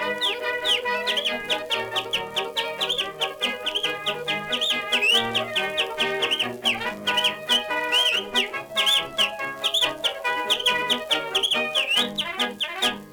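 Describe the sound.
Shrill, rapid finger whistling, done with one or two fingers wedged into the mouth, warbles and trills in a continuous stream, imitating chirping and clucking birds, with quick pitch slides and fluttering notes throughout. No one speaks.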